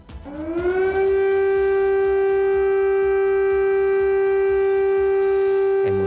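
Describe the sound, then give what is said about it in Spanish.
An air raid siren in a Ukrainian city, warning people to seek shelter, winds up over the first second to a loud, steady wail that holds at one pitch, sounding alone with a faint rumble underneath. “muchísimas ciudades ucranianas vuelven a escuchar, vuelven a sonar este sonido, el sonido de las sirenas antiaéreas que avisan a la población para que busquen refugio.”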